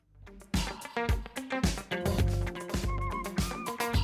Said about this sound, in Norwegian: Og hvordan skal vi starte dette? Så klart med god musikk.